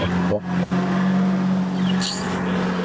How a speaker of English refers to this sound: Sorry, the car is passing.